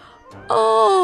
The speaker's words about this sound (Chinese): 到了早上，… 打了一个大大的哈欠。